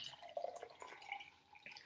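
Water being poured or sipped: a brief, irregular burst of trickling, dripping liquid sounds lasting about two seconds, fairly quiet, with no voices.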